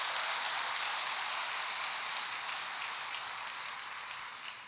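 A crowd applauds in praise to the Lord in a dense, steady wash of many hands clapping at once, holding loud and even before easing off slightly toward the end, with no voices.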